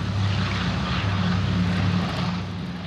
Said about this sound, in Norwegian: Legendariske DC3 idet motorene starter og propellene begynner å snurre. Fly som var første gang på vingene i 1935, er etter manges mening det mest vellykkede flyet i luftfartshistorien.